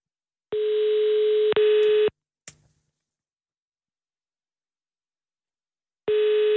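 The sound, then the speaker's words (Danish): A telephone ringing tone on the line while placing a phone call: a steady electronic buzz sounding for over a second, a faint click, a long silent pause, then the tone starting again. No one speaks. “Vil du ikke lige ringe til ham?”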